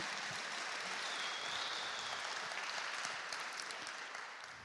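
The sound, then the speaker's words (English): An audience breaks into sustained applause for Jesus, a dense wash of clapping that holds steady at a fairly even loudness for several seconds before easing slightly at the end. “That might be worth a round of applause for Jesus, by the way.”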